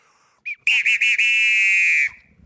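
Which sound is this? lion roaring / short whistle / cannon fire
short whistle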